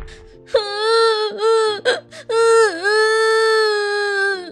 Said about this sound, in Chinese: 子母龙妈妈听到了哭声，啊，是梁太回来啦！